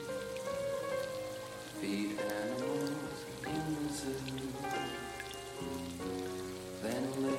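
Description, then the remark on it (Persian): Water drops patter and drip steadily onto a gramophone record in a room full of water, continuous, mixed with sustained tonal notes that shift pitch every second or two. No voices. “قطره های آب میچکه روی صفحه گرامافون”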